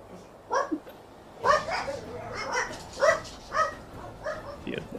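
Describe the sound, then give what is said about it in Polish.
A dog gives a run of short, high-pitched barks and yips, about seven in an uneven rhythm, moderately loud, with brief pauses between them. “I po chwili nie słyszysz żadnych psów, które tu szczekają, bo zaraz...”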